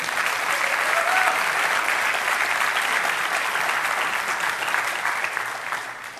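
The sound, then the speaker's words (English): A large church audience at Wellspring claps steadily for the seniors for about six seconds, a dense, even wash of applause that holds strong before tapering slightly at the end, with no one speaking over it. “Give them a round of applause, real quick.”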